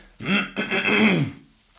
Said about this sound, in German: Und äh, mein Team und ich, muss kurz räuspern,